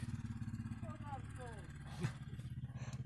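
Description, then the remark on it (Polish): A motorcycle engine that someone arrived on idles outside a studio with a steady, throbbing low rumble that pulses rhythmically throughout, with a brief burst of voices rising over it midway. “Mamy turystów jakiś przy, przy studiu. Ktoś do nas przyjechał motorkiem.”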